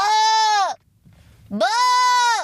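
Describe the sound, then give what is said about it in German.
A voice imitates a sheep's bleat twice, two loud, nasal, strongly harmonic baa calls separated by a short quiet gap. “Schwein, aber pass mal auf, kennst du mein Schaf schon? Bah!”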